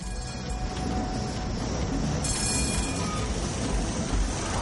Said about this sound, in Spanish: Dos tranvías amarillos pasan cerca de él.